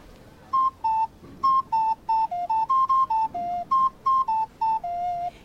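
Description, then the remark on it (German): A small cuckoo flute with only two holes and three tones plays a quick tune of clear, whistly notes hopping among two or three pitches. The falling two-note cuckoo call, made by closing one hole, repeats several times, with no talking. “Die Kuckucksflöte hat nur zwei Löcher und drei Töne. Und da ganz markant ist der Kuckuck, wenn man ein Loch zumacht.”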